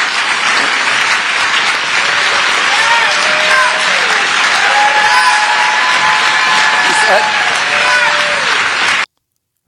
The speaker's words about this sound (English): and whoever that is shouting in the background. do you hear that?